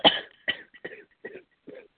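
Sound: person coughing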